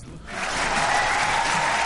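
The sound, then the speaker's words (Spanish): A burst of applause swells in after a brief quiet moment, many hands clapping in a dense, steady patter that holds at full strength to the end. “te están aplaudiendo como lo aplaudieron el otro día con los alcaldes a Rajoy.”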